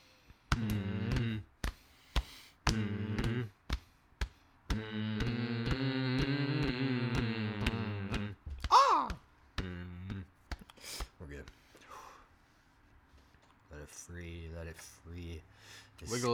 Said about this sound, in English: We do we need to do the hum again? Yeah. Mm.